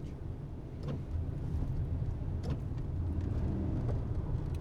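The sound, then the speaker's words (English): Steady low rumble of heavy road traffic going by, with brief swells as individual vehicles pass; a continuous engine-and-tire drone with no one speaking. “Wow, there's a lot of traffic today.”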